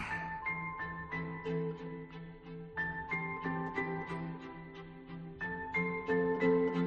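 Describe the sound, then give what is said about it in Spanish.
Instrumental score from the film La Sociedad de la Nieve (Society of the Snow), Juan Antonio Bayona's film about the Andes air disaster, plays alone: sustained low tones under a steady pulse of repeated, bright plucked or chiming notes, moderately loud and even throughout, with no voices. “Estás escuchando la banda sonora de La Sociedad de la Nieve, la gran triunfadora en la noche de los Goya, la película de Juan Antonio Bayona sobre la tragedia aérea de los Andes”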